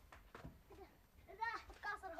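A baby whimpers in bed in a few short, high, wavering whines that grow louder toward the end, after some soft breathy fussing.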